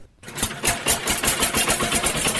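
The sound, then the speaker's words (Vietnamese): A tractor engine chugs steadily outdoors in a custard apple growing area, starting abruptly and running with a loud, rapid rhythmic knock, with no voices. “Tiếng máy cày giòn giã làm vùng chuyên canh trồng na thêm nhộn nhịp giữa màu xanh dịu mát của cây trái bạt ngàn.”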